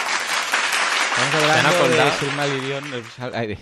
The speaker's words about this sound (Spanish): Y me encanta Infobae, aquí les aplaudimos, porque oye, han dicho de verdad cuál es el primer caso de crowdfunding.